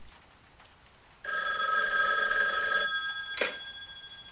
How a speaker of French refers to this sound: Le téléphone sonne une troisième fois.